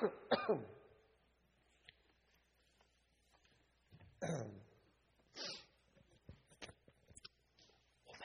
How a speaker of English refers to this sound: We're going to go for one more good cough